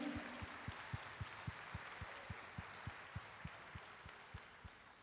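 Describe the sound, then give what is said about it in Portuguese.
A crowd applauds steadily, a dense wash of clapping with a regular, rhythmic low thump beating underneath at a quick, even pace throughout, fairly loud and sustained. “Vamos aplaudir, isso aí.”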